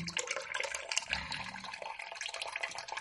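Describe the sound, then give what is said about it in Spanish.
Water gushes and pours steadily, a loud rushing and splashing that fills the whole moment like a basin or pool filling up fast, with no voices over it. “comenzó a salir todo el agua del sapo y así se fue llenando nuevamente el río la laguna y hasta su propio charquito.”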